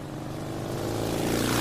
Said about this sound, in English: The Harley buzzed along the dark road, the sound of the engine echoing back at her from the sloping hills and shadow laden trees.